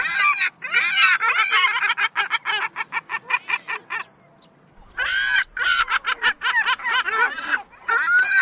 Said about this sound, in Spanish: Bueno, eso es eh, el reclamo de una, una, gaviota que se llama gaviota cáspica, el nombre científico es Larus caquinans, es una gaviota que se distribuye en la época de cría por especialmente por